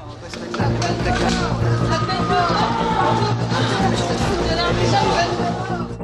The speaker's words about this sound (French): La foule s'était amassée autour du palais de justice et c'est une foule qui crie qui crie euh, à mort, euh, salope, euh, il faut la pendre.